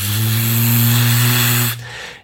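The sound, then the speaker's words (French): A voice imitates the buzzing of a mosquito swarm rising from the jungle: a loud, steady, low droning buzz with a rough, harmonic edge, held for almost two seconds before stopping abruptly. “tu fais très bien les moustiques.”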